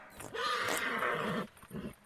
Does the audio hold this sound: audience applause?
no